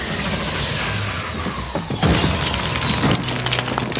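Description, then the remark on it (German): A loud, clattering crash of things tipping over and spilling, with a sharp burst partway through and a second one soon after, amid continuous rattling and breaking noise. No one speaks. “Also hast du es verstanden, es geht um die Rubrik ausgekippt.”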